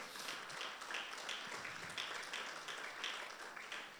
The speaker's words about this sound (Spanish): Amén, dele palmas fuertes al Dios.